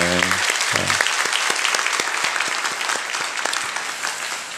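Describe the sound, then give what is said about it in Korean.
A church audience breaks into sustained applause giving glory to God after praise and worship, dense and steady clapping filling the whole stretch at a fairly loud level, with a short voiced sound at the very start before the clapping takes over. “우리의 귀한 찬양과 또 예배를 통하여서 영광 받으신 하나님 앞에 영광의 박수 올려드릴까요?”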